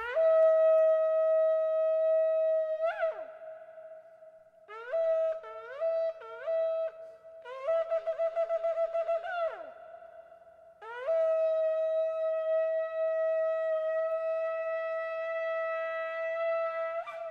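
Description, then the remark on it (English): A shofar sounds a long sustained blast, then three short broken notes, a rapid series of quick staccato bursts, and finally another long, steady blast. The horn tone is loud, bright and brassy, with no talking. It is blown on a Wednesday in the month of Elul, ahead of the Jewish New Year. “JM and the AM, our Elul chauffeur blowing here on this Wednesday as we get closer and closer to the brand new year.”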